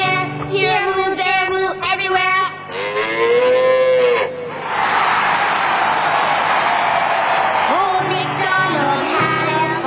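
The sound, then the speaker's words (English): A person imitates a cow mooing, with several drawn-out, wavering moos, broken midway by a long breathy, noisy stretch before the moos resume. “Have we got a cow in here?”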